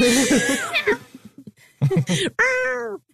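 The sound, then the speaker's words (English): A loud cat screech: a long harsh yowl, then a short broken cry and a final rising-falling wail, with brief quiet gaps between the outbursts. A stock cat screech sound effect, a cat counterpart of the Wilhelm scream. “Is there a cat, Cat Wilhelm as well?”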